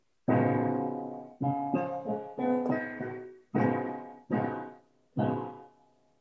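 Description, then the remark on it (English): A dense, rich piano polychord, a D major triad (D, F sharp, A) voiced beneath a C major triad (C, E, G), struck repeatedly, about seven times in an uneven rhythm, each full cluster of notes ringing loud before fading. No one speaks. “So on the piano, it's going to sound like this.”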